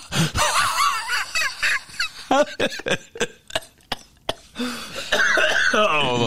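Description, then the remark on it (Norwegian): A person loudly imitates an asthma attack: strained, squeaky wheezing breaths broken by a run of sharp, rapid coughs, then a long, rasping wheeze at the end. “kjører hardt på astma.”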